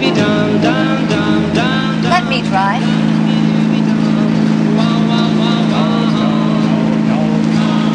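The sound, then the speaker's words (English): A car engine runs steadily throughout, its low droning hum constant beneath overlapping voices that talk over it; the car has a heavy clutch that takes a lot of strength to depress. “This car can get away from you.”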